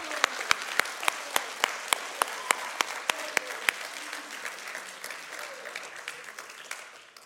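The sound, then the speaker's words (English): A church audience gives the Lord a round of applause in a dense, steady wash of clapping, with one loud pair of hands striking sharp, evenly spaced claps on top for the first few seconds before the crowd carries on alone. “Come on, let's all give the Lord a round of applause.”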